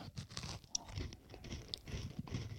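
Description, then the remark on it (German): Crunchy chewing of a crisp lemon tartlet, a steady run of dry crackling bites and grinding with no talking, moderately loud and continuous throughout. “Das knirscht mehr beim Essen”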